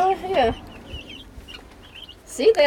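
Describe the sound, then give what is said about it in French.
Young chickens, 26 chicks only three weeks old, cluck in two short, louder bursts at the start and end, with faint, high peeping chirps scattered through the quieter stretch between. “Moult pui, ça veut dire qu'il y a beaucoup de petits poules.”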